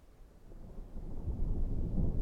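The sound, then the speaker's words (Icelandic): A deep, continuous rumble of thunder as the sky darkens overhead, swelling steadily louder over about two seconds, low and heavy with no voices present. “Skindilega heyrðist þrjumu gnýr og skíin tók að rannast upp á heimninum yfir höfði þeirra.”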